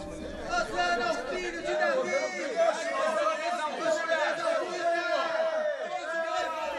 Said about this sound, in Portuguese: Veja o tamanho desta multidão